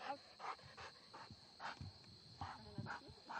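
A dog, Rush, barks in a quick, uneven series of short bursts, fairly faint, during bark-and-hold training on a helper, with a steady high hiss in the background and no talking.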